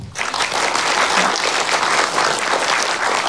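Steady audience applause thanking someone for a fine initiative, a dense, even wash of many hands clapping at once without any voices rising above it.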